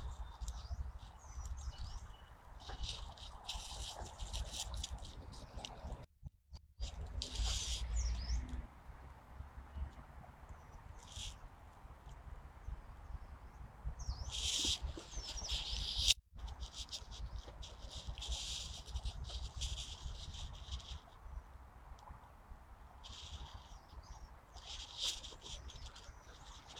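A yellow-browed warbler sings in trees in thin, very high-pitched chirps and trills that come in repeated short bursts throughout, over a steady low rumble. No one speaks.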